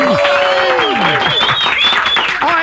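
A loud crowd bursts into sustained applause and cheering, with whoops and high shouts rising over steady clapping throughout the short burst.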